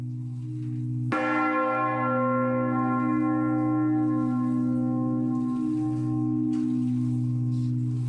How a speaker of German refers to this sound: Er sagte es mechanisch, mit markloser Stimme und versuchte seine Worte mit dem Schlage der letzten Glocken in Einklang zu bringen, die matt und langsam hinterherhinkten.